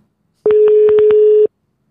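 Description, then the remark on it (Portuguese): A single steady one-second beep of a phone's ringback tone, clear, with faint clicks over it and silence before and after, as a call rings without being picked up. “Tu atende esse telefone.”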